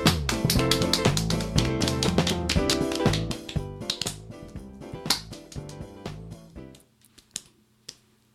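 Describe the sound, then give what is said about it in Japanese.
An audience, cued by the MC, practices its applause for a guest's entrance: dense, steady applause that holds for several seconds, then thins out and fades to a few scattered, isolated claps at the end. “はい、じゃあ皆さん足立さんが登場された時にどれぐらいねこう拍手の感じちょっと練習しましょうか。”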